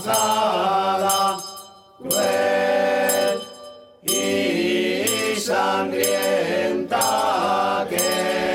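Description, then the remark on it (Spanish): The auroros bell of Patiño, in the region of Murcia, rings with bright, metallic strikes whose harmonics hang and decay, at first roughly every two seconds and then in quicker, overlapping peals, loud throughout with no talking. “Esto que escuchamos de fondo es la campana de auroros de Patiño, precisamente una de las campanas de auroros de la región de Murcia, de Murcia, eh, municipio, una tradición muy arraigada”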